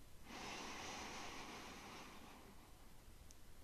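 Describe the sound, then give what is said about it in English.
A single long, deep inhale drawn in through the nose during a guided grounding-breath exercise, a steady airy rush lasting a couple of seconds that tapers off, fairly soft, with no talking. “Breathing in through the nose and sighing out the mouth.”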